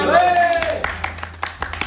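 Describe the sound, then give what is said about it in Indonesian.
A short rising-and-falling vocal whoop opens, then a scattering of sharp hand claps follows in an uneven, loose rhythm, like a few people clapping briefly. “Boleh tepuk tangan dulu.”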